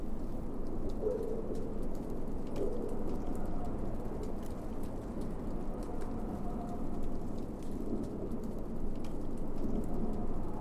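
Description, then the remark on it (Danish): A continuous underwater wash of water slapping against a boat hull, dense and rumbling in the low range, dotted with faint ticks and pops, steady throughout with no voices. “Men der er meget lyd af bølge mod båd.”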